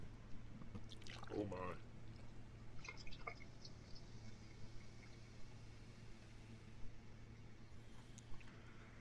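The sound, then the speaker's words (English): DuClaw Sweet Baby Jesus porter is poured into a glass, starting with a brief gurgling splash, then settling into a soft, steady fizzing trickle with occasional drips against a low background hum. “So here we go. Let's pour this thing let's, up. Let's pour it up.”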